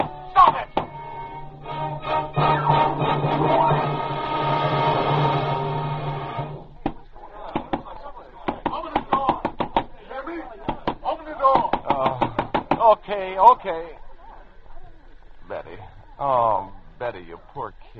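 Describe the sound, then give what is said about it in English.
Loud, repeated pounding on a door, heavy thuds coming in bursts over a sustained droning background, then continuing intermittently while a person talks. “What's that pounding? Pounding, pounding. Cut it out.”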